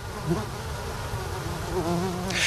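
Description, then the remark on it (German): A dense, steady buzzing of many bees in a shrub in a botanical garden, recorded with a microphone held into the shrub, several insects humming at once with shifting pitches, continuous throughout with a brief brighter rustle near the end. “Und wenn man mal hinhört, das summt und brummt hier schon, wenn ich mein Mikrofon an in so einen Strauch halte.”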